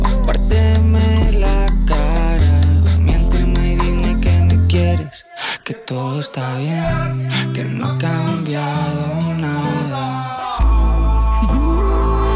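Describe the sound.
A pop song with a male voice singing over steady bass and chords; the music drops out briefly in the middle for a sparse break, then the full band returns, loud.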